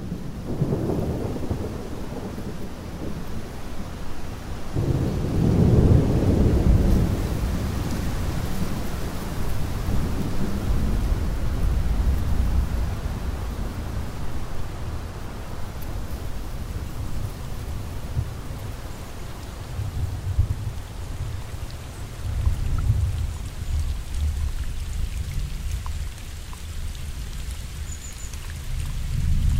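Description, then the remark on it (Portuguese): A thunderstorm rolls on with deep, rumbling thunder swelling in long waves over steady rain and gusting wind, loud and enveloping, with no voices. “O vento agora sopra mais forte. E no céu, os trovões anunciam uma chuva.”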